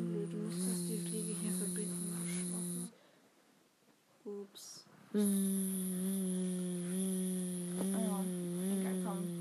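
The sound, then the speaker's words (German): A voice imitates a fly buzzing around a lamp, as a pen is moved as the fly, with a long, steady, nasal drone that wavers slightly, breaks off for a couple of seconds, then returns just as loud. “Bzz, dein Stift ist die Fliege. Lass sie um die Lampe schwirren.”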